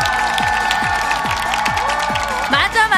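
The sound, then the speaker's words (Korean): A crowd of mothers and fathers applauds in a dense, steady wash of clapping that fills all three seconds, with a rhythmic thumping beat and sustained voices running beneath it. “우리 엄마들, 아빠들 박수 많이 쳐야 건강해지는 거예요.”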